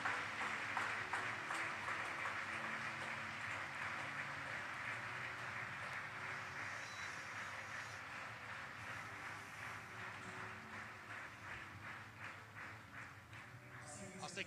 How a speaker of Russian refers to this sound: Давайте воздадим Господу сильные аплодисменты.